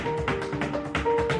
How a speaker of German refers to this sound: Und was Sie hören, ist aber kein Instrument, sondern das sind zwei berühmte Stepptänzer.